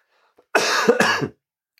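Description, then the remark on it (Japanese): A harsh, wet cough bursts out and rattles on for most of a second, breaking into two or three rough pulses with a throaty edge, with no talking; a lingering cough that has not stopped after an illness. “咳は止まらないんで、明日の朝もう一回ちょっと病院行って、咳。”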